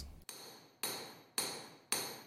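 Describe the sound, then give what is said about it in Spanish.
Four evenly spaced hammer blows strike an iron sickle blade to even it out so it is well sharpened, each a sharp metallic clang with a bright ringing tail that fades before the next hit. Fairly loud. “La hoz se iguala con el martillo para que esté bien afilada y después se añade el mango de madera.”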